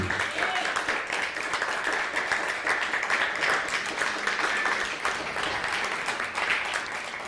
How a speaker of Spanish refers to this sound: Un fuerte aplauso.